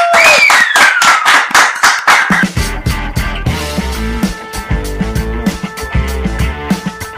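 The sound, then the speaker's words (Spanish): Quick, steady rhythmic applause with a high whooping cheer over it at the end of a show segment called El Biombo, then a bouncy musical jingle with deep bass notes comes in while the clapping continues more faintly. “¡Un aplauso! ¡Woo!”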